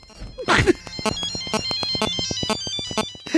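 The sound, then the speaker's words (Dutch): A phone ringtone plays a rapid, tinkling Bach melody of evenly spaced bright notes, loud, after a brief noisy burst at the start. “Weer een telefoon. Ik hoef geen telefoon.”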